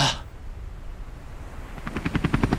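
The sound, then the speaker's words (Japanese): A helicopter sound effect: a steady engine rumble and wash of noise, then the rhythmic thudding chop of rotor blades grows louder toward the end. “ああれは大日向整骨院こんな時にも迅速に来てくれるのかヘリでお迎えには行きませんがあなたのトラブルに迅速対応”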